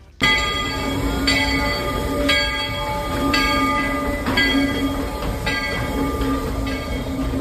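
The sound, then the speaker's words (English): The train bell of the Walt Disney World Railroad at the Magic Kingdom clangs steadily, about once per second, ringing loud over the low rumble of the train, with no voices. “I was debating whether whether to put uh, the train whistle or the train bell. I went with the bell, but like both of them, um, you could really put here.”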